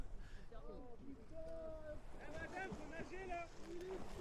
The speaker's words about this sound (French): C'est juste trop beau, quoi. T'es entouré que d'eau. Là, je fais de la voile. De temps en temps, on arrête le moteur un plein milieu de l'océan.